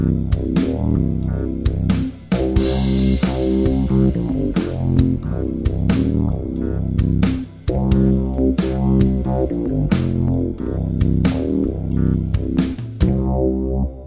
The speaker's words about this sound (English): All right, at this point, we'll probably have a little musical transition into the next topic.